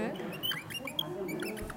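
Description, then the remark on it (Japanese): A person imitates a bird with a quick run of high, squeaky chirps and twitters, moderately loud, with faint voice sounds underneath. “喋ってる感じがするんですよね鳥がね会話してる”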